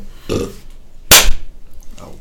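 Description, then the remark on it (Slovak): A short burp is followed moments later by a single sharp hand clap from another person that rings out louder than the burp, with no talking. “Som rád, že si tleskol až potom, ako som si grgol.”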